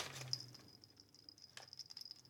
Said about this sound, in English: Yes, Sebastian's here. I don't know if you heard the jingling of his bell.